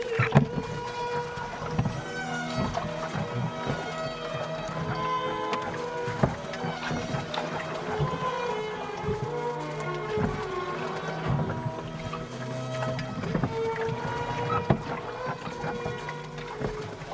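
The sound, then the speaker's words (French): A 10-metre-long, 2-metre-wide rowing boat moving steadily on water, with a continuous wash of water and creaking, humming tones from the hull, fairly even in loudness throughout, with no clear talking. “Euh, juste on, apprend à vivre sur un bateau euh, de 10 mètres de long et 2 mètres de large euh, là où c'est le plus large.”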